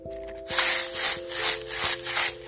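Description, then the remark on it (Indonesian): Homemade maracas, a closed bottle filled with rice and mung beans, shaken in a steady rhythm, about five bright, gritty rattling bursts, with a faint steady hum in the background and no talking. “biar boleh hias-hias udah jadi udah jadi coba kayak gimana suara marakas”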